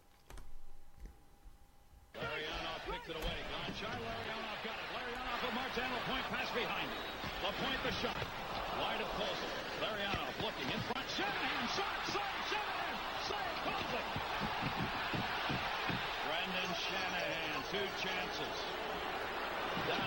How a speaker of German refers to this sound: die ganze Halle hier in Detroit explodiert. Das dauert jetzt 25 Sekunden, das spiele ich mal an. Du hörst das Rauschen